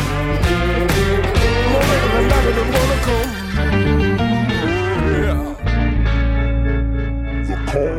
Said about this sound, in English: It also has one of my favorite things in a song a fake out ending that sounds like this.